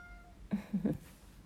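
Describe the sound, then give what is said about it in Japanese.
A cat named Mafu gives a short meow in a couple of quick bursts in reply to being called by name, clear and fairly loud against a quiet background with faint hum. “最近喋らないんですよ朝マフちゃん お返事上手ねまふちゃん”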